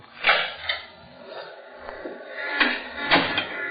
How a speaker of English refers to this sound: Now, open the door and step outside.